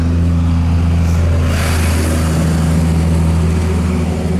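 A loud car drives past, a steady low engine drone with a broad whooshing swell of tyre and wind noise that builds around the middle and lingers. No one speaks.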